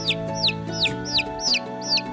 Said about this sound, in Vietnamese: Một con cáo mắt xanh, đuôi dài, nấp trong bụi rậm, Thế gà con đi tìm muội một mình Định có ý xấu nhảy ra vồ Gà con sợ quá Vội ba chân bốn cẳng chạy ra bờ ao Gà con vừa chạy vừa kêu